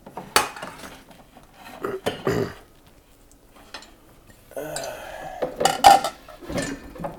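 Dishes and a pan clatter and clink as they're unloaded from a dishwasher, with several sharp metallic knocks and scrapes spread irregularly over a few seconds, separated by short quiet pauses.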